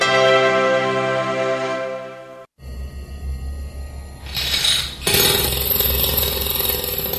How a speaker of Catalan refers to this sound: No, no es el despertador. El despertador ya no es el primero en saludarte, sino las taladradoras.